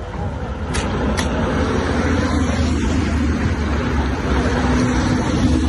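A steady rumble of car engines and road noise as a line of cars, the convoy accompanying Pedro Sánchez to the Torrevieja desalination plant, rolls out one after another, with a couple of sharp clicks near the start and no pause in the traffic.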